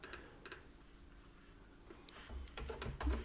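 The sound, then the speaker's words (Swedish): Crisp keyboard clicks tap out irregularly, a few scattered strokes at first, then a quicker burst of typing near the end over a low background rumble. “Jag, jag, vill, jag, hör, jag hör vilket tangentbord du använder.”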